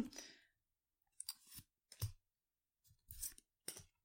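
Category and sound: household object, shuffling playing cards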